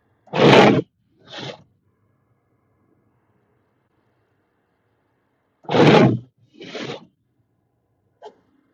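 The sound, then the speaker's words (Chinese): Harsh, hissy scraping of snow off a car window in Beijing after heavy snowfall: two pairs of strokes, each a loud rasp followed by a shorter, softer one, with a long quiet pause between pairs and a brief tap at the end. “那个玻璃的声音，听起来好刺耳。不刮也不行啊，让它慢慢来刮一下，偶尔刮一下。”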